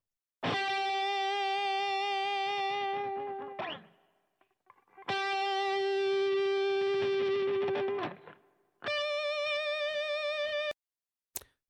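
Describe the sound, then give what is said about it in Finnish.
Three sustained electric guitar notes played as three different vibrato examples, each held with vibrato that wavers the pitch, the first two long and the third shorter, loud and distorted with no talking. “Tässä on pari, tässä on kolme erilaista vibraatto niin kuin malliesimerkkiä.”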